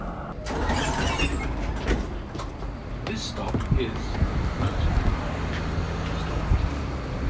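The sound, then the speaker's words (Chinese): A tram runs along a busy city street, a steady loud rumble of traffic and motor noise with a low humming drone rising midway, while indistinct voices murmur underneath. “对，现在来放一段 tram 的声音。”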